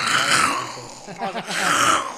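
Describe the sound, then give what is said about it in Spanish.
A person imitates a lion's roar: a loud, raspy, sustained growl with a brief dip midway before swelling again. “Seamos verdaderos, rompamos el miedo y dejemos que este león que tenemos aquí ruja.”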